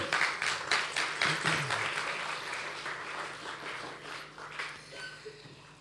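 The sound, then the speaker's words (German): Steady audience applause in thanks to LA Productions, who run the video technology, a dense patter of many hands clapping at once, fairly loud at first and gradually thinning and softening toward the end, with no talking over it. “Ein fester Applaus und ein Dankeschön für die LA Productions, die im Hintergrund die Videotechnik machen und alles machen, ja?”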